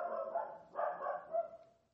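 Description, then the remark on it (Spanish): Dogs bark in a steady, overlapping stream, one bark running into the next with hardly a pause, at a fairly low volume; they have been barking nonstop for a while. “Está contestando a esos perros, unos perros que están ladrando sin. O sea, llevan un rato ladrando sin parar.”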